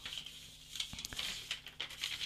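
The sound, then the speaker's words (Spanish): Sheets of paper being shuffled and straightened, a steady run of soft crinkles and rustles broken by a few sharper taps, with no one talking. “Acomodo con mis papeles.”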